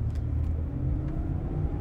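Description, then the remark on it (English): A steady, low engine rumble fills the cabin of a car, a continuous droning hum with faint road noise and no voices, holding an even level throughout. “I just got in my car, so two and a half, two hours and 45 minutes.”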